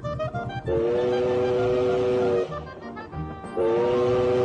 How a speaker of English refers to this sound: Hi, this is my train. Ooh, a train. Yes, this is my train.